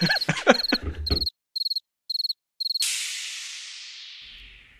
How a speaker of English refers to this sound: Clair, if you want to put in crickets, that'd be fantastic.